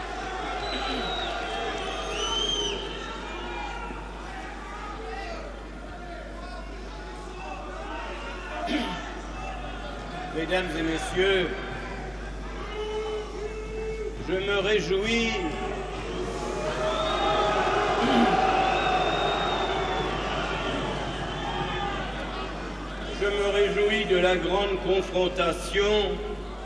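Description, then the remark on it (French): A large crowd in an assembly chamber keeps up a steady, loud din of overlapping voices, shouts and scattered clapping while being asked to stop applauding so the speaker can talk, swelling in the middle and toward the end without ever falling quiet. “Je vous demande de cesser d'applaudir et de cesser d'autres bruits pour permettre à l'orateur de s'exprimer.”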